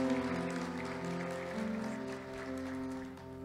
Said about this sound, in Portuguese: Aplauda o Senhor por essa palavra, querido.